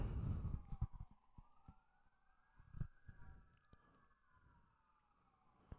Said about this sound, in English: There's been a lot of sirens tonight, by the way. I feel like there's always a lot of sirens. Not like that. That's been like two two barrages.